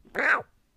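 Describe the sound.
A person mimics a cat with one short, nasal meow lasting under half a second, loud, followed by near silence.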